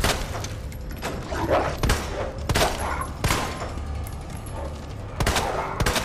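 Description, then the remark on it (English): Video game shotgun blasts, about six sharp booming shots spaced irregularly over a few seconds, loud, over a dense, rumbling background of game noise. “Okay, I feel like I'm wasting shotgun shots if I do that.”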